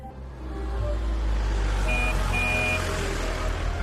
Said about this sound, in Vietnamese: Mỗi khi có xe ô tô chạy qua, hay xe đạp kêu lên kênh lướt đến là cả nhà lại luống cuống túm lại với nhau, vừa xuống đường, vừa dò dẫm từng bước về hướng thủ đô Seoul.